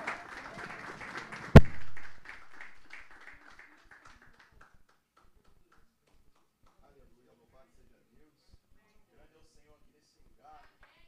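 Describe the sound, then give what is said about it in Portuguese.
A church audience bursts into applause to welcome a student of the Escola de Líderes who is about to speak: a dense clatter of many hands with one sharp loud crack, fading out over about four seconds into near silence with faint murmurs. “Que a igreja o receba com uma calorosa salva de palmas.”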